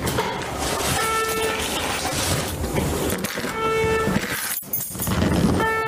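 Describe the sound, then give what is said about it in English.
An alarm set off by keys in someone's pocket blares in repeated bursts of a steady, buzzy tone, each lasting about half a second and spaced a couple of seconds apart, over a constant loud rumble of background noise. “Can you turn off your fucking alarm, you idiot?”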